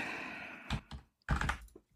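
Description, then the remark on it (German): Several quick keystrokes on a computer numpad, clustered in short bursts with brief pauses between them, moderately loud with no talking. “Oh, wenn man das Numpad nicht aktiviert hat, kann man da schlecht tippen.”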